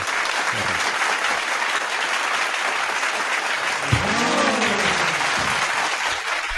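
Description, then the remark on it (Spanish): A crowd claps steadily and loudly for several seconds, a dense, continuous wash of applause, with a brief voice or cheer rising through it partway in. “E un aplauso para por favor.”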